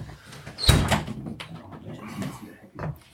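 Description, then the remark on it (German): A door hinge gives a short squeak, followed by a loud thud as the door moves or shuts, then fainter creaks and knocks. “jemand WD40 wurde dabei geschafft? für die Tür oder so?”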